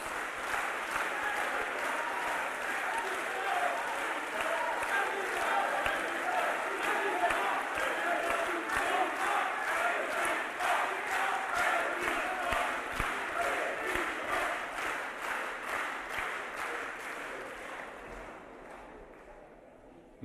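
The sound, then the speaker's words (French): A large crowd at the first Front de gauche presidential campaign rally chants in unison over steady, rhythmic applause, a loud sustained roar of voices and clapping that keeps an even beat before fading away in the final seconds. “On ne crie pas le nom d'un homme, on crie la cause commune.”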